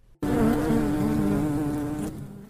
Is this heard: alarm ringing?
no